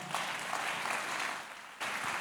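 An audience claps hands together in a dense, steady burst of applause, moderately loud, dipping briefly near the end before picking back up. No one speaks over it.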